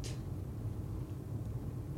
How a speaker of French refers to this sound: 4 camions de pompiers. ouais non ça crame plutôt bien.